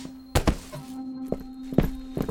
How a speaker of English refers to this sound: You just see as he downs the entire cocktail and walks off in a direction of the hall. And as his steps approach before your chair, he too is kneeled before you.